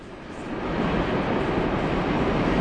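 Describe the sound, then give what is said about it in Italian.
A train rumbles past outside, a dense, steady roar that swells over the first second and then holds loud and continuous, with no voices over it. “Eh, comunque il treno spacca sempre.”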